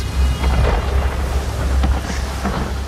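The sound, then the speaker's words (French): A thunderstorm in a scene from the Netflix series Vikings: Valhalla rumbles steadily, with deep low thunder rolling underneath a constant wash of rain, loud, with no voices. “Tu viens d'arriver, malgré cette tempête”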